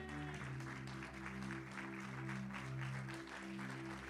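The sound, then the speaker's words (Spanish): A church audience claps steadily and loudly after a call to say amen to the word of God, dense overlapping applause sustained for several seconds over a low, droning musical backing. “Vamos a dar un aplauso fuerte.”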